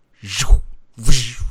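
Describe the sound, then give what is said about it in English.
A voice imitates a sci-fi heat-vision sound: two short, close, buzzy bursts with a breathy hiss, each about half a second long and separated by a brief pause. “You know the the like when he turns on his um heat vision.”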